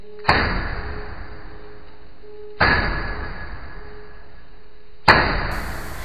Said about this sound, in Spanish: ¿Quién podría estar tras la puerta? Nadie respondía. Tras unos segundos escuché de nuevo los tres golpes secos, pero ahora más distanciados.